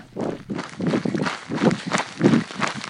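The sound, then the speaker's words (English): Water sloshes inside bottles carried in a running pack, coming in steady rhythmic surges about twice a second in time with running strides, fairly loud with no voices. “The pack I carried has these water bottles. They slosh around and make a lot of noise, but only when I run, not when I walk.”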